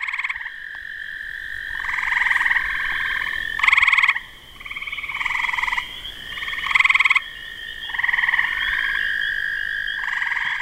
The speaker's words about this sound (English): Wow. Yeah, so this would be a typical probably spring, late spring, early summer evening, um, if you're out at various observation sites. So when I listen to that, I can actually hear three different frogs and toads calling to us.